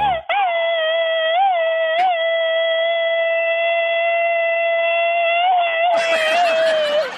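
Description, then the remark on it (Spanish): A boy, asked to give a "machine gun" yell, lets out one long, loud, high-pitched yell, held at a nearly steady pitch for about six seconds with slight wavers. It ends in a burst of noisy commotion. “Aviéntate un grito ametralladora, chamaco.”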